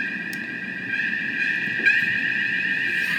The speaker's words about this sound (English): that is the uh, innovation alarm. it's the bullshit detector.